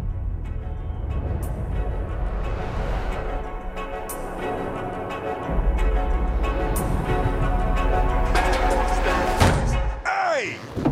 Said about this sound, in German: Und man nimmt ihnen das auch gleich wieder ab, wenn er da aus dem Porsche aussteigt und Martin Lawrence erstmal gegen den nächsten Hydranten da die, die, die Tür pfeffert.